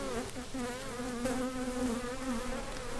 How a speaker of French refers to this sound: Et on fume euh, l'intérieur de la ruche. Et là, on voit vraiment énormément d'abeilles. C'est une ruche de combien d'abeilles environ Là, là-dedans, tu dois avoir, euh, je sais pas moi, 20-25 euh, 000 abeilles là.